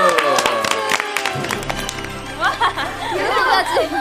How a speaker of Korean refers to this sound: 먼저 준비하느라 고생하셨습니다. 박수!